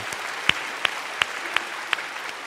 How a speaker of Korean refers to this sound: 하나님께 영광의 박수 올려드리도록 하겠습니다.